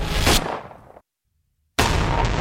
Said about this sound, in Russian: Второй выстрел пришелся в голову.